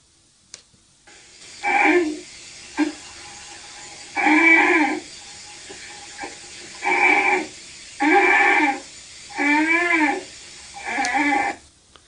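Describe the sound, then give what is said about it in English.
A polar bear cub honks for its mother: six loud, nasal, bleat-like calls, each about a second long, repeating every couple of seconds with quiet gaps between and no talking. “just wouldn't think bears would make such a honking sound.”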